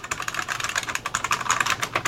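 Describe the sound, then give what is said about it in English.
Rapid, continuous clacking of keys on a loud mechanical keyboard, with many sharp clicks in a quick uneven rhythm and no voices. “They the nice thing is if you're interested, uh, dear listener, in this type of keyboard”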